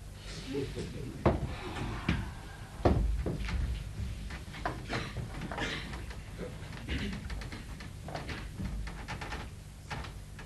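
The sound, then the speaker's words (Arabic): A window is pushed open, with a series of wooden knocks, scrapes and rattling clatters from the frame and latch over several seconds. “لا إذا فلا جدوى من فتح النافذة لا إذا افتح”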